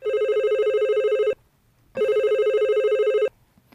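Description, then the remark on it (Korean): A telephone rings in two loud, steady bursts of rapid electronic trilling, each lasting over a second, separated by a short pause. No one speaks. “그저 소가리를 하고 눈물로 며칠씩 지새우던 어느 날 전화가 울렸습니다.”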